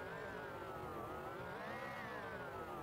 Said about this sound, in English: Sometimes, wow, listen to this. The heater's on the background. And when I do this, it's like a.